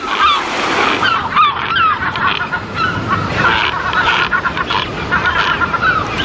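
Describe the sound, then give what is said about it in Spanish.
A dense chorus of harsh, overlapping seabird calls from colonies of European shags and yellow-legged gulls on islands of a national park, many birds crying at once and continuously, over a steady wash of surf and wind noise, with no one speaking. “Las aves son otro de los grandes protagonistas con importantes colonias de cormoranes moñudos y gaviotas patiamarillas.”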